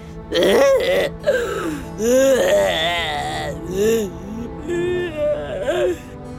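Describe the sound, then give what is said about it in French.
A voice imitates a dinosaur crying: a series of wavering, whimpering sobs with rising and falling pitch, fairly loud, broken by short pauses. “Ça, les enfants, c'est un dinosaure qui pleure.”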